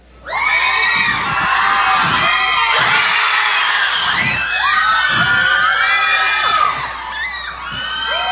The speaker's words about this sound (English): I like to call this speed round. If you see the hand over the top of the head, you cheer hard and fast.